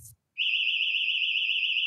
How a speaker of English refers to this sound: Fucking house alarm went off. It's back.